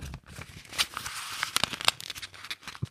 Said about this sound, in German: Äh also was die Leute am häufigsten gucken für sowas ist irgendwie so Papier reißen, Papier Warum? knistern, Papier